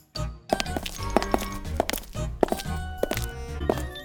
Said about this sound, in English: Suddenly, they heard footsteps coming from outside.